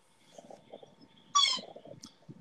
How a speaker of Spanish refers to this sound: Especialmente con el sonido especial del perro atrás. Oye, dejen, dejen, dejen. Vamos a dejarlo ahí. para que se lo escuche la gente.